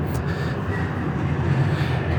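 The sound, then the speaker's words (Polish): A tram rumbles in the background as it pulls away, a steady low mechanical drone with faint squeals and hum, continuous without any voices. “Trzecia rzecz, startujesz tak jak na przykład teraz startuje ten tramwaj, który słychać w tle.”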